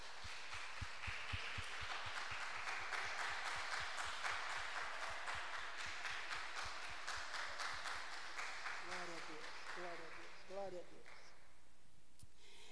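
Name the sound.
audience clapping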